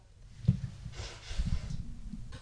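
Someone blows their nose in a couple of soft, breathy, rushing bursts that swell and fade over a second or so. Fairly quiet, with no talking.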